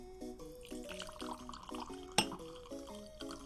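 Wine glugs from a bottle into a glass in a quick, steady series of hollow gurgles, with a single sharp glassy clink partway through, no voices.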